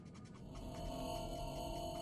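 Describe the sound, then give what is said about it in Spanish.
A faint, sustained electronic note from the title screen of a 1986 game by Cornea Integrated Associates, holding steady at a low level for the whole stretch with a soft hiss beneath it and no voices. “Lo único que suena es una nota sostenida que muchos jugadores pasaron por alto.”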